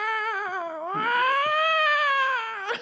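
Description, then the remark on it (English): A voice imitates a police siren, holding one loud, nasal wail that dips, swells upward and slowly sags over about three seconds, with no other sounds. “and the police siren you said it didn't even sound like a siren. It sounded like some person just yeah.”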